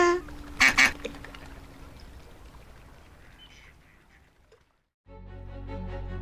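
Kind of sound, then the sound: bird, ducks quacking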